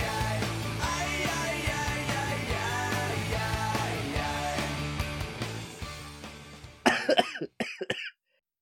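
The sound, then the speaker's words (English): Music plays and then fades, followed by a short burst of three or four harsh coughs in quick succession before the sound cuts to silence. “didn't cough one time.”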